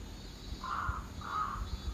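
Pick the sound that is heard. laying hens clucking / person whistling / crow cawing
crow cawing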